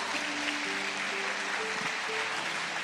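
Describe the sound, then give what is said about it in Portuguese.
Steady applause from an audience, a dense, even wash of clapping that fills the whole stretch without pause, with faint tonal hums running underneath. “Aplausos na vida dele.”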